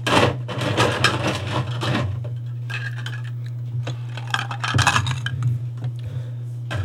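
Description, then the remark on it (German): Ice cubes drop into a glass with a burst of hard clinks and rattles, a quieter pause, then another cluster of clattering knocks, all over a steady low hum. “Ja, einen Eiswürfel brauche ich auch noch.”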